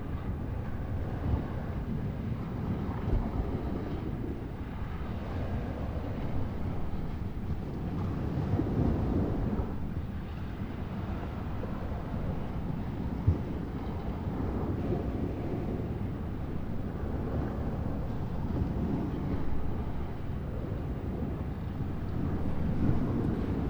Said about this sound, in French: Le vent est tellement présent, la mer tellement présente que cela couvre toutes les pollutions sonores actuelles euh, qui peuvent euh, être euh, audibles autour.